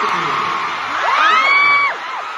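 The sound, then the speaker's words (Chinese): Concert fans in Bangkok, Thailand, scream as a Korean boy group comes on stage, in a dense, continuous wall of high-pitched shrieks, with individual piercing screams rising and falling over the loud crowd roar throughout. “一出场粉丝尖叫声不断”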